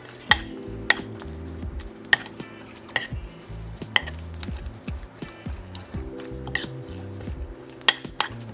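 Cabbage being stirred into batter in a bowl for a seafood pancake, so every piece is coated: a utensil scrapes and clacks against the bowl in sharp, irregular knocks about once a second, with soft low music playing underneath and no talking.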